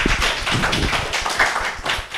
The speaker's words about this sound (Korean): 예, 수고하셨습니다. 박수 한번 주시죠.